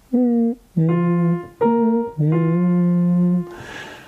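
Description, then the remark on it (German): Two descending pairs of sustained tones, each pair dropping a perfect fourth, with the lower note held longer the second time. The tones are clear with no talking, and a soft hiss follows. “Und das musst du dir merken und du bekommst wieder diese Quartenpaare nach unten.”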